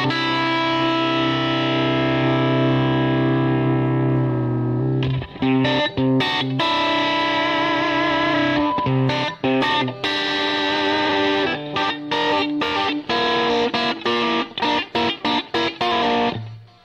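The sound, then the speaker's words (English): A loud electric guitar, a Strat, played through delay and a compressor, sustains a thick chord for several seconds, then plays choppy, rhythmic strummed bursts with repeating echoes trailing behind; no one speaks. “But then there's another delay, like over here, like way over there.”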